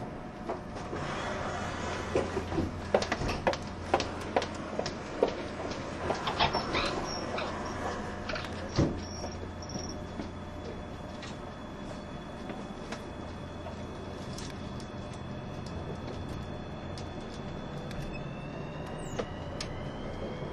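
An E351 series Super Azusa No. 18 limited express train, running from Matsumoto to Shinjuku with its next stop at Hachiōji, runs steadily, with a continuous low rumble and wheel noise, rhythmic clicks and clatters over the rails, and a few faint high whines. No one speaks.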